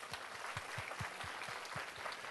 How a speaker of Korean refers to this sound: 박수 한번 해 주십시다.